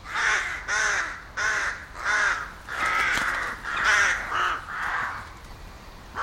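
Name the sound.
crows cawing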